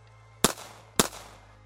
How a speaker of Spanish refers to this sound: Sobre los techos, otro par de ellos brincaba y realizaban más disparos.